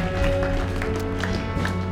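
A church audience applauds after a prayer in a steady, dense wash of clapping, with sustained keyboard-like chords humming underneath throughout.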